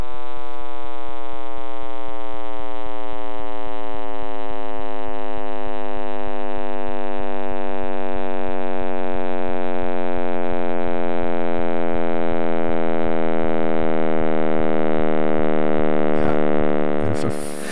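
A physicist's synthetic rendering of the Big Bang, posted online: a dense stack of harmonic tones gliding slowly downward from a high pitch into a low, steady droning hum, loud and continuous for about seventeen seconds.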